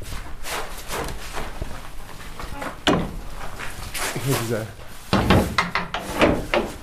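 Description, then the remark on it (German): Metallic clanks and scrapes of the old lock on the gate of Burg Friedland castle being turned with a large old key, followed by a low creak and heavier thuds as the gate swings open, fairly loud. “wenn man quasi das Burgtor aufmacht, das hat, man hat einen großen alten Schlüssel, der glaube ich auch seit, diesem, seit dieser Zeit existiert, als diese Tür hier reingemacht wurde.”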